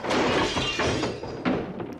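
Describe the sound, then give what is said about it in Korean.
A steam cleaner is deliberately knocked over with a loud clattering crash, a burst of plastic and metal rattling that peaks early, then a second sharp clunk before it settles. “그래서 옆에 있던 스팀 청소기를 넘어뜨렸죠.”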